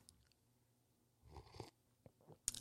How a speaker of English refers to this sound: I need to make my coffee. I'm having a sip of my coffee right now.